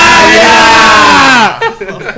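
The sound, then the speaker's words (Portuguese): A group of people yell the word "canalha" together after a count of three, in one loud, sustained shout lasting over a second, then it cuts off abruptly and a few quieter voices follow. “Vamos berrar junto com a canalha”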